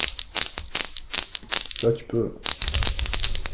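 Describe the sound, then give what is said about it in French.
Rapid, irregular metallic clicks of the steel balls of a Newton's cradle knocking together as someone makes them collide in various ways, fairly loud, with a brief spoken phrase in the middle before the clacking resumes. “Je peux les faire choquer de plein de façons.”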